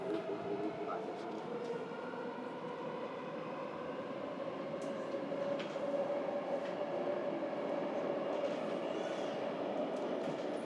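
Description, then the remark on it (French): A Hong Kong metro train rumbles steadily along toward Central, passing green hills, its low mechanical drone and faint rail clatter continuous, with a sustained tonal hum running through the whole ride. “Avant d'arriver à Central, au centre de Hong Kong, en métro, on traverse des collines verdoyantes”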